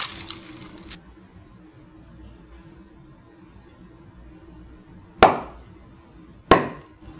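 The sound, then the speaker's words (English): A short hiss fades into near silence, then two loud, sharp crumpling cracks ring out about a second apart as a closed steam-filled bottle, cooled in water, collapses from the vacuum left as the steam condenses. No one speaks. “when the steam returns to the state of liquid water, the bottle collapses, there being a vacuum produced inside by the condensation of the steam”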